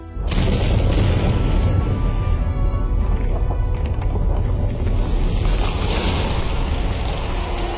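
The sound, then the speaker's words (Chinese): A massive explosion of China's first atomic bomb test, raising a mushroom cloud over Lop Nur, Xinjiang, on 16 October 1964, roars as a deep, loud, continuous rumble that swells in at once and churns on for about eight seconds, heavy in the low end, with no voices. “一九六四年十月十六日，新疆的罗布泊上空升起了一道蘑菇云。”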